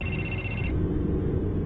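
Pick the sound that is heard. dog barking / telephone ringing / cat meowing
telephone ringing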